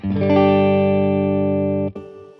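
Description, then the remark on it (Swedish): A dry, unprocessed electric guitar chord with the chorus effect switched off rings out steadily for about two seconds, then is cut off as a new note is picked, with no voices. “Ja, nu är, det, nu är det torrt.”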